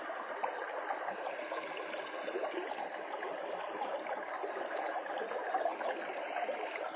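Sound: stream water flowing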